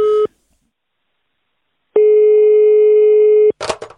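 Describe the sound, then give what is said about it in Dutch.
A steady electronic ringback tone of an outgoing phone call: one short burst, a pause of silence, then a longer ring of about a second and a half, followed by a click as the call connects. “Ik heb met hem gebeld en dat heb ik opgenomen.”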